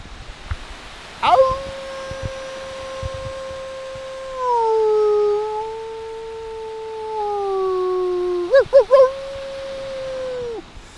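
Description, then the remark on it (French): A person imitates a wolf howl with one long, steady, mid-pitched vocal tone held for about nine seconds. It sags slightly in pitch and wavers briefly near the end, with no speech around it. “Alors, Ouest hurlant, je vous dédicace ce hurlement.”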